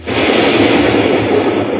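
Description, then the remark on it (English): A loud thunderclap as lightning strikes the top of a metal pole during a storm, starting abruptly and rolling into a steady, roaring rumble, filling the space with broad noise for almost two seconds without fading. “At 12.20, a loud thunderclap was heard as lightning hit the top of the pole.”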